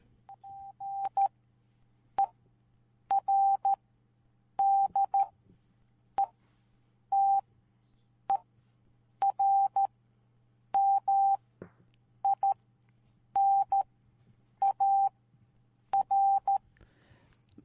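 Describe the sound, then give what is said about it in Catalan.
A steady high-pitched Morse code tone keys on and off in short dots and longer dashes, grouped into a brisk repeating pattern over a faint low hum, with no voices. “Part determinar traduït en, ah, en, en codi morse.”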